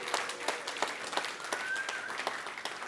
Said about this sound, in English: Let's give moms one more big round of applause. Can we do it, everybody? Yeah.